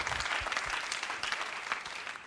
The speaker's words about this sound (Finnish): Annetaanko vielä Elisalle tsemppi aplodit?